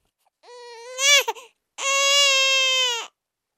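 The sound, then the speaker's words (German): A premature newborn baby boy cries in two loud wails, the first rising and breaking into gasping sobs, then a brief pause before a second sustained, steady wail that cuts off abruptly. “entband am 13. Januar 1622 die liebreizende Madame Poquelin geborene Cressé, von ihrem ersten Kind, einem frühgeborenen Säugling männlichen Geschlechts”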